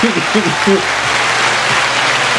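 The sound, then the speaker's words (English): Steady, dense applause fills the whole stretch, many hands clapping at once in a loud, continuous patter, with a brief low voice audible underneath at the start. “Clap it up for him.”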